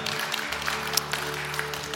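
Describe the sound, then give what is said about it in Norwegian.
An audience at a church service applauds the worship leader and the technicians, a steady, dense wash of many hands clapping at an even level, with a low steady hum running underneath throughout. “Skal vi gi lovsangeren en applaus?”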